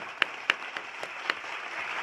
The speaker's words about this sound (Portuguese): Vou meter aqui o, o aplauso que eu tô merecendo.